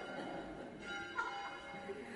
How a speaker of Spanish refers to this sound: También que me suenan las campanas. ¿Cuántas veces suenan las campanas?